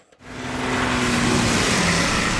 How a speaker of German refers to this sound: Es ist einfach laut, es stinkt, es vibriert, man kann kein Fenster aufmachen. Schön ist anders. Wir hören die Geräusche teilweise um 2 Uhr, 3 Uhr nachts noch, wie die LKWs durchrasen.